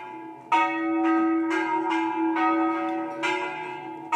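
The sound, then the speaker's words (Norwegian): Two church bells swing and ring together, their strikes overlapping in a steady, uneven rhythm with long shimmering overtones that fill the space continuously. No voices. “Kirkeklokkene har spredt sin klang ut over det norske landskap i tusen år.”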